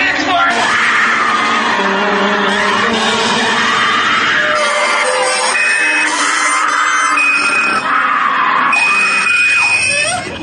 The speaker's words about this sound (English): she's also just doing a fabulous scream